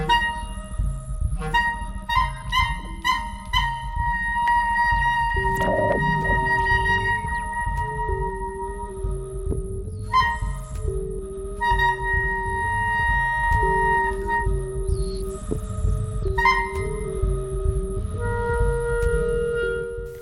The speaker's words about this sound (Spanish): Estamos escuchando el día que los otomíes degollaron dos caballos y derribaron a sus jinetes españoles, de 2018, para clarinete y sonidos electroacústicos de Manuel Ramos Negrete, México, 1974.